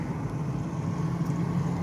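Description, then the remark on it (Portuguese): A noisy Ford Ka car engine rumbles with a steady, droning low growl that stays loud and even throughout, with no talking over it. “Peraí, um carro muito barulhento aqui, é um Ford K.”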